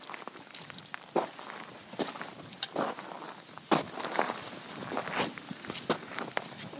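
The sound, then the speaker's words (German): Slow, steady footsteps walk at an unhurried pace, each step a soft scuffing thud roughly once per second, fairly quiet against a faint background hiss, with no voices. “Oh, das ist, äh, ich würde sagen, das sind Schritte, da geht jemand. Er geht langsam.”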